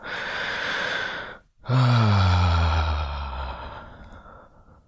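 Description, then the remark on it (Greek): A long, forceful breath pushed out through a relaxed mouth, heard alone after a brief pause, starting strong and trailing off softly over a few seconds. “Καλαρώστε το στόμα. Εκπνεύστε δυνατά.”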